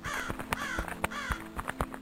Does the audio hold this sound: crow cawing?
yes